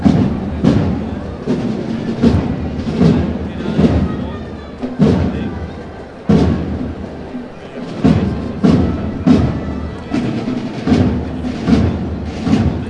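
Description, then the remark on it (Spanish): The drums of a band, accompanying the float of the Señor Resucitado (Risen Lord) in a brotherhood procession along Calle Campana, pound out a steady, regular beat in the street, each loud hit sharp and booming, with a murmur of voices running underneath. “Fueran de fondo los tambores de … que van acompañando al Señor resucitado, como decimos, avanzando por calle Campanas.”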